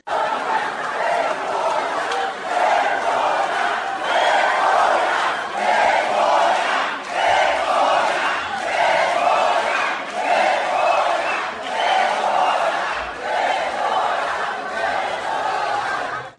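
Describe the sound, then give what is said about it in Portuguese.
State public employees protesting retirement rules chant slogans in unison while lawmakers speak at the rostrum. Loud rhythmic bursts of shouting repeat every second or so with brief gaps, over a constant roar of many voices. “Então houve manifestações, gritos de ordem e bastante gritaria enquanto os parlamentares estavam na tribuna.”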